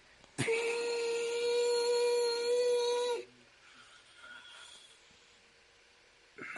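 A whistle is blown as hard as possible in one long, shrill, piercing blast lasting about three seconds, loud, then cuts off, leaving only faint background noise.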